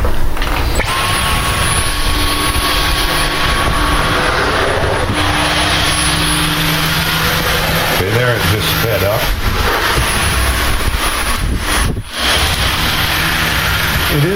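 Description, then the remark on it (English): A cordless vacuum sweeper runs steadily in medium mode on a hardwood floor, fairly loud, its high motor whine and brushy hiss continuous, with a brief shift in pitch partway through. “It's extremely quiet for a cordless sweeper.”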